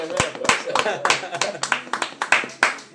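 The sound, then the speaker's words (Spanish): Applause from a small group: sharp, bright claps landing at an irregular, fairly quick pace for about three seconds, moderately loud, with no voices. “Aplausos, por favor.”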